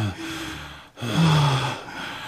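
An elderly man gasps and struggles for breath in two labored bursts, with a brief pause between them, fairly loud with a rasping, strained quality.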